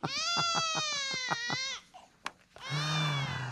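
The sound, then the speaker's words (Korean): A baby wails loudly in strained, pulsing bursts as a grandmother tries to get it to sleep, pauses briefly with a small gasp, then resumes crying at full volume. “짜장 짜장 우리 애기 역시 실패”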